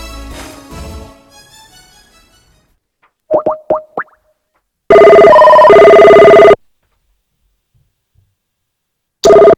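An outgoing phone call: a fading tone, a few quick dialing beeps, then a loud, steady buzzing ring lasting over a second, a pause, and the ring starting again. No voices.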